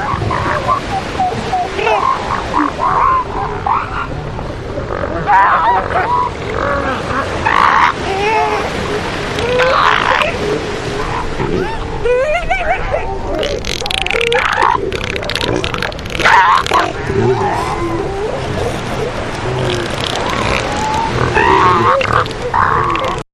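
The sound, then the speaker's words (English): A crowded chorus of deep, throaty bellows and rumbling grunts overlapping continuously, loud, from a large colony of elephant seals calling at once with no pauses at a coastal headland. “What happened with elephant seals? Why were they not on the beaches before the 1970s?”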